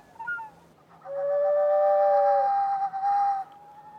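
Airy whistling tones from water sloshing in vessels shaped somewhat like ginger roots, hung on ropes in a rotating installation and partly filled with water; several steady pitches overlap for a couple of seconds, then fade to a softer lingering whistle, fairly loud with no talking.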